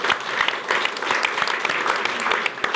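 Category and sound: crowd, studio audience applause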